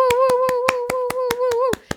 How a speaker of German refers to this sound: Herzlichen Applaus, willkommen Lilly Hollunder.